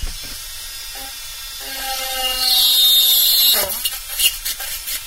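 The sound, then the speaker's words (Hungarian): A small water drill whines steadily as it bores a hole at a pencil-marked point, a thin high-pitched buzz with humming overtones that grows louder midway, then sputters with a few uneven bursts near the end. No one speaks. “Ezt valamikor régen tűvel fúrták ki ezt a lyukat, de én használok egy ilyen kis vízi fúrót, amely használata sokkal könnyebb és sokkal biztosabban tudok vele dolgozni.”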